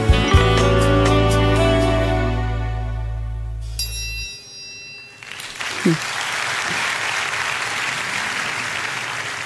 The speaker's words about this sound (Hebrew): מחיאות כפיים